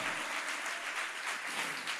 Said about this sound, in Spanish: Si le vas a dar un aplauso a Dios, dáselo bien. Aleluya.